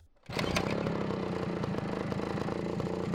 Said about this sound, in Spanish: Jairo, ya prendido, encendió su moto y se encaminó por las empinadas calles de Lomas, hacia el mero centro de Bogotá, al barrio La Perseverancia